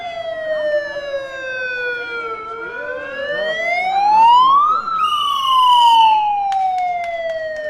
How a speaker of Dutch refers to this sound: Nou, daar zijn we hoor, bij het eh, gemeentehuis Zaanstad. Zoals gezegd, leden van de SP en van eh, de Partij voor de Dieren staan hier. En er zijn rollators met sirenes erop.